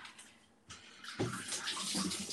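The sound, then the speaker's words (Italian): Cold water runs from a tap in a steady, hissing stream, starting softly and then gushing louder as the flow opens up partway through, with no voices. “acqua fredda.”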